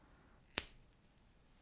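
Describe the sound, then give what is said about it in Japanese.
A single crisp snip of scissors cutting through paper, cutting off the right part from the middle, close and sharp, with a faint softer click shortly after in otherwise quiet surroundings. “右をまた切って捨てますハサミを取っていただいて真ん中から右だけを捨てます”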